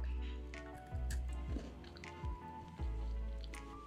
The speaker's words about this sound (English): Mm hmm. I don't know if you can hear this chewing. I don't know if you want to hear the chewing.